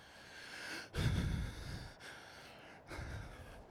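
heavy breathing

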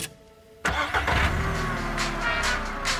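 car engine starting

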